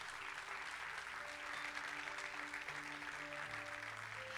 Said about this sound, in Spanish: Den un fuerte aplauso a Dios.